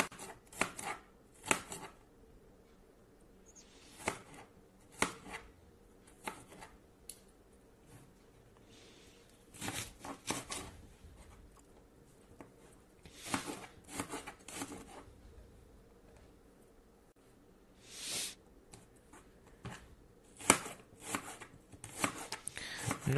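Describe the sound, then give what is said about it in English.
A knife chops onion on a cutting board in irregular bursts of sharp taps, some quick clusters and some single strikes, with short pauses between and a low background hum. “sure if you can hear the sound of me chopping onion right now.”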